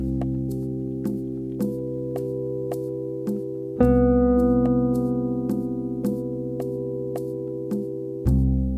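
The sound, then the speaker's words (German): A sustained keyboard chord containing a major seventh, with a steady metronome-like tick about every half second; a fuller chord enters midway and another near the end, with no voices. “Hier ist die große Septime.”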